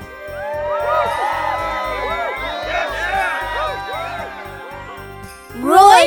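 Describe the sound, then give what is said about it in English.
A crowd of many voices cheers and shouts together in a lively, continuous roar, with one burst of louder whooping near the end. “Hooray! A crowd of people joins Roy.”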